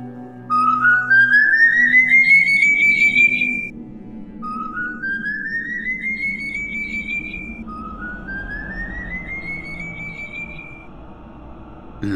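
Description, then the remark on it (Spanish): Three long, eerie rising whistles, the whistling of El Silbón from Latin American oral folklore, each sliding slowly upward in pitch and fading, separated by short pauses over a low, murky background rumble. “Todos piensan que en el saco, yo, el silbón, transporto los huesos de mi padre.”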